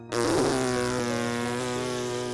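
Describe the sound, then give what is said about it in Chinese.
A loud, sustained cartoon fart sound effect in a children's story, a buzzy, low-pitched blast likened to a cannon, let out by a character as she prepares to jump during practice. It starts abruptly and holds steady for about two seconds with a slight wobble. No one speaks over it. “她放了一个像大炮一样的响屁呀！”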